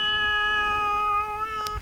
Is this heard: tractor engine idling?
no